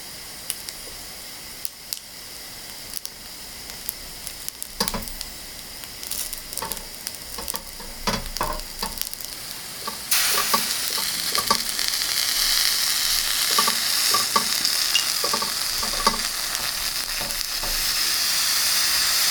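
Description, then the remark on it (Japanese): Yaki onigiri (Japanese rice balls) sizzle on a grill, a steady crackling hiss with scattered pops and soft scraping, growing fuller and louder about halfway through. No one speaks. “目覚めのいいね今朝は香ばしい焼きおにぎりのいい音それではお聴きください”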